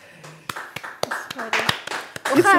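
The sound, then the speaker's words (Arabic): A scattering of sharp, irregular hand claps sounding over ongoing chatter and laughter that grows louder toward the end. “واخا واخا هذا ماشي انجاز ولكن صفقوا عليكم”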